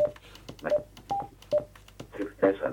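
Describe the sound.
A radio transceiver gives a series of short, clear electronic beeps at irregular intervals as it is switched into FM mode, with a faint voice-like murmur and static in the background.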